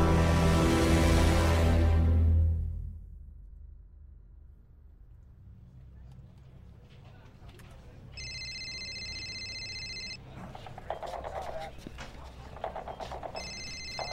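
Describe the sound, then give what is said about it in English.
A satellite phone at Fort Irwin Command rings in electronic trilling bursts, one two-second ring followed by the start of another, over a steady low rumble and scattered knocks after a loud, noisy opening. “Would someone get that? Who's left that's got a sat phone?”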